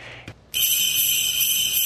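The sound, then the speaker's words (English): After a short quiet moment, a shrill electronic tune starts up, a loud, steady high-pitched beeping that sounds like Jingle Bells played by a tinny chip, with no one talking over it. “Is that Jingle Bells?”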